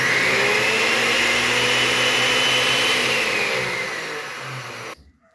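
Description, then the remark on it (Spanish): A blender, used by a mother to prepare breakfast in the morning, whirs loudly and steadily for about five seconds, its motor pitch shifting slightly, then cuts off abruptly into near silence. No voices. “Después escucho la licuadora sonar que mi mamá me está preparando mi desayuno.”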